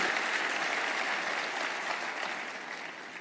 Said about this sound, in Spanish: Si tú lo crees, dale el aplauso al Señor con todas tus fuerzas y decláralo en el nombre de Jesús.